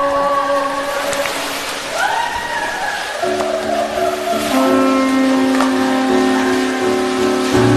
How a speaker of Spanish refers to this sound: Qué hermoso estos susurros del agua, ¿no es cierto?